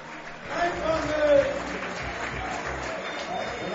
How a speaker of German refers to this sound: Aber einen großen Applaus für den Head Coach.